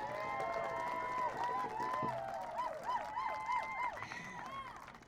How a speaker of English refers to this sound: I really want you to give a loud round of applause to Councilwoman Wilson